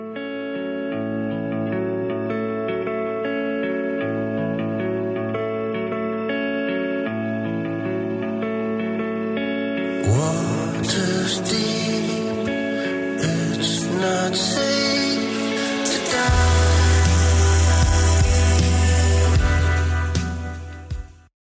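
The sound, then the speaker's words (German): A hazy, reverb-soaked song by a husband-and-wife duo, blending dream pop with a rootsy Americana feel; sustained layered tones open, then fuller band instrumentation enters halfway with brighter, denser sound and a deep low bass swell near the end. “Gemeinsam kombinieren sie Dream Pop und Amerikaner und das klingt so.”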